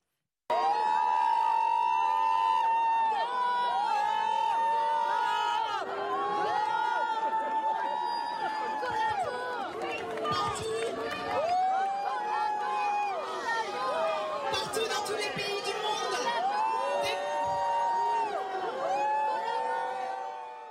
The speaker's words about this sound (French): Écoutez à présent ces quelques réactions de personnes qui ont sifflé Sandrine Rousseau, il y avait du monde.